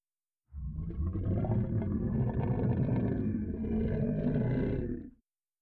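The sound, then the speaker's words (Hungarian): A deep, rumbling, earth-shaking roar of a beast approaching the surface swells in and holds for about four and a half seconds, loud and growling with heavy low-end vibration, then cuts off abruptly. No voices accompany it. “Földet rengető moralja közeleg a fenevad a felszín felé, de Kazmetra nincs egyedül!”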